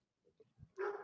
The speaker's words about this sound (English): Sorry, no. that was my dog barking in the background.